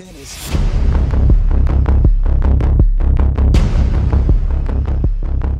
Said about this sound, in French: on écoute la bande-annonce et au retour, ma critique